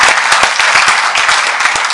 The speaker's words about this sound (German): Lass uns mal für die Online-Familie klatschen heute Morgen.